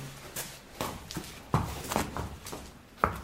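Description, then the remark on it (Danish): Irregular hoof thuds on soft ground as a very young horse walks out onto the arena, each step a dull, muffled impact with faint shuffling between, at a moderate, uneven pace. “Det er jo det, der er årsag til det, vi laver nu med sådan en helt, helt ung hest her.”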